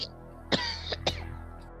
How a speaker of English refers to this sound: No, I actually did cough